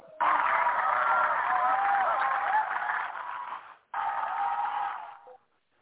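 Sustained audience applause, a dense wash of many hands clapping loudly for several seconds, breaking off briefly before a second burst that fades out.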